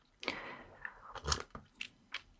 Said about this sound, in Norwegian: Åh, nå må jeg ikke glemme den kaffen min. Sorry, folkens. Jeg prøver alt jeg kan å ikke slurpe eller svelge uh, inn i mikrofonen. Det er ikke så veldig lett. Jeg kan ikke noe for hvordan jeg svelger heller.